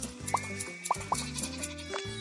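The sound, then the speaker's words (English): Three short sheep bleats from a farming game sound out over steady, looping background music, two of them close together near the middle, all fairly quiet and bright. “Uh, these sheep here have some wool for me, so hold on.”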